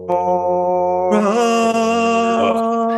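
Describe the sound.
A person imitates a roar with one loud, sustained voiced growl lasting a few seconds, which turns harsher and more forceful partway through before trailing off.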